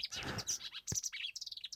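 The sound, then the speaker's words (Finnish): Warbler song: a dense, rushing burst of tangled high notes, a part that recurs about every 15 seconds, four times a minute, pours out, then breaks into a quick run of sharp, separate chirps, fairly soft with no voices. “tämä ryöpsähtelevä osuus on noin kerran – joka 15 sekuntia, eli neljä kertaa minuutissa tulee tämä ryöpsähtelevä osuus”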